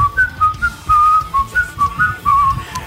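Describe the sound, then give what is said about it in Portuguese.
Someone whistles a short, lilting melody of quick sliding notes, mimicking a Peruvian flute tune, with a low rumble of handling noise underneath and no talking. “Que é aquelas, aquelas flautinhas de. É, flautinha peruana, né?”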